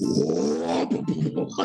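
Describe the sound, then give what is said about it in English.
A voice imitates the sliding door of a dollar cab van closing: a loud, drawn-out, strained wailing tone, then a few short choppy bursts, with no other sounds. “that's the sound of the door that's the sound of the door closing”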